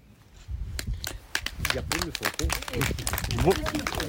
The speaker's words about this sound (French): Beaucoup, beaucoup d'applaudissements.